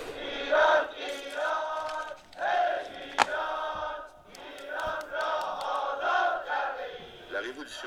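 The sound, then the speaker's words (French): A huge crowd of several million people on a road, welcoming a leader, cheers and chants in the streets, a dense roar of many voices with rhythmic shouted swells and occasional sharp cries rising above the mass. “Quand il y a plusieurs millions de personnes sur une route pour accueillir un chef, il n'y a pas de mot possible, sinon peut-être celui de, ou l'expression de délire collectif.”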